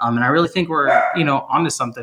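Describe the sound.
The speaker's own male dog barks in the background while a person keeps talking, the short barks partly buried under the steady voice.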